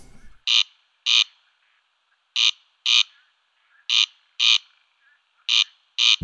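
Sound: corncrake call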